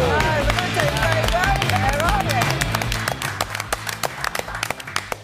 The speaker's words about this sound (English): Muted applause.